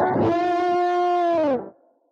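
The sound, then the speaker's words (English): A distorted electric guitar, an Ibanez RG350, strikes one thick, buzzy note that rings out steadily for about a second and a half, then dips slightly in pitch before cutting off. No one speaks. “it's an Ibanez RG350, which is kind of ideal for what we're talking about today because this guitar was designed around about the time these women were leaving the dojo, the majority of them anyway”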